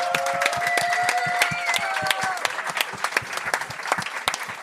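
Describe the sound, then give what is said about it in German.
Loud, steady applause from a crowd at a live show, dense overlapping claps throughout, with a few whistles or cheers rising above it in the first half before the clapping continues on its own. The applause is for two DJs, who are about to play. “Äh, mal schon ein riesen Applaus für äh, … und den DJ …, die dann werden auflegen”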